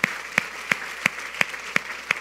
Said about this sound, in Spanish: Y por eso yo quiero pedirles que me acompañen en, un aplauso al Señor de gratitud, porque ha sido hermoso el Señor.